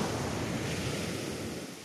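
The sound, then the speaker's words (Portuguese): Ocean surf rolls and hisses in a steady, unbroken wash on an empty beach under cloudy skies, with a faint breath of wind over it. No voices or other activity, just the waves alone. “Não tem ninguém na praia, realmente.”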